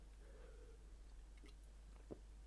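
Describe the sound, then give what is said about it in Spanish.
Someone chews peanuts, with a few sharp crunchy bites scattered over a quiet background with a faint low hum. Nobody speaks. “Y que me estoy comiendo cacahuetes y se me queda la garganta un poco.”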